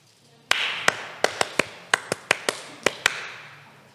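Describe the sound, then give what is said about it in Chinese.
Eleven sharp hand claps in the bouncy 'love encouragement' pattern, short groups of quick claps separated by brief pauses, crisp and fairly loud over a faint steady hiss, with no talking, clapped to mark the start of a recording. “爱的鼓励”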